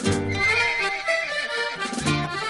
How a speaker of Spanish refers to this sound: Al tratar de poner el freno al caballo, el animal lo sintió. Se puso arisco, pateó, brincó y ni siquiera dejó que el abogado pudiera ponerle una mano encima.